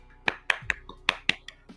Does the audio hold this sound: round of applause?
yes